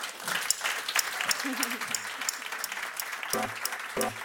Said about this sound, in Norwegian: Gi dem en eh, varm applaus.